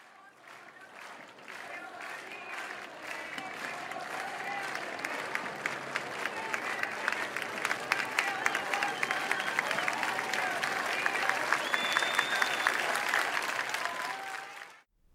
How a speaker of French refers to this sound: Mais ces voix ne s'étoufferont pas. Vous les entendez là, accompagner le cercueil de Marielle dans les rues bondées de Rio.